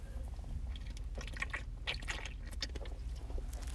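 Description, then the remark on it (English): Someone takes a drink, with soft wet sips, swallowing and little liquid squishes over a low background rumble, no talking. “Let's take another drink real quick.”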